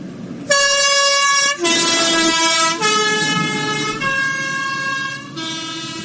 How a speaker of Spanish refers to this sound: Esto no es nada más que la bocina, el post-boost del Grindelwald Bus cuando se marcha de aquí de Valspitz.